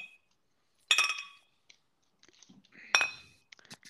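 Two bright clinks of drink bottles knocked together in a toast, close and crisp, each ringing out briefly, with small taps and handling noises between them.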